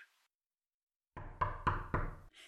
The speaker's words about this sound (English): She is currently knocking at the door to your apartment.